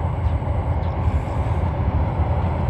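A Tozai Line commuter train in the Kanto region of Japan rumbles past shortly before sunset. A loud, steady low roar of wheels on rails with clattering texture fills the whole clip without any talking.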